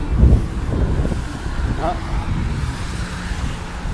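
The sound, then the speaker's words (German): Steady, heavy wind buffets the microphone, producing a loud, continuous low rumble with gusty surges throughout, while a faint, muffled voice surfaces briefly beneath it. “Sorry für den Wind, Jungs und Mädels.”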